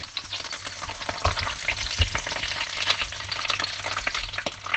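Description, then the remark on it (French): Meat sizzles steadily in a little olive oil in a stewpot, a dense crackling hiss with occasional sharper pops and a few soft clanks, continuous with no talking. “Et ensuite, on va commencer à faire revenir dans la casserole, en fait dans un faitout, la viande dans un fond d'huile d'olive dans un premier temps.”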